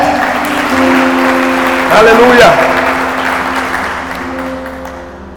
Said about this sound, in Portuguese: E se você crê nisso, aplauda o Senhor com toda a sua fé.